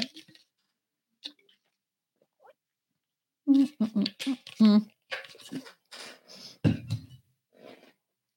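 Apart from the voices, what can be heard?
sipping and swallowing water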